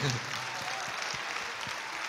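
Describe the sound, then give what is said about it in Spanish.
An audience breaks into sustained applause for the unmarried young people standing up, a dense, steady wash of many hands clapping at even loudness for the full stretch, with a brief low voice sound at the very start. “Le vamos a dar un fuerte aplauso a esta linda juventud.”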